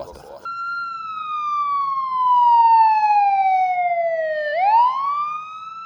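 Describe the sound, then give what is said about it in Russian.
A rescue tow truck's siren sounds loud as the truck sets out to help a racer whose motor is badly damaged: one long, steady wail that slowly falls in pitch for several seconds, then sweeps back upward. “Мотор гонщика сильно поврежден, и на помощь к нему выехал спасательный эвакуатор.”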